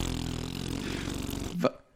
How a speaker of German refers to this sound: Was für ein Pups, Alter, der war ein Pups.